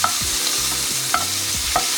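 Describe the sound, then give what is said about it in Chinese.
Wagyu beef sears in a frying pan, browning to golden on most sides before the heat is turned off. A steady, loud high hiss of sizzling fat is broken by a few rhythmic scraping knocks as the meat is moved and stirred. No one speaks. “那因为我今天这个是和牛，所以我不想要煎太熟，所以我大概看到它蛮多面都已经呈现金黄色之后，我就把关火。”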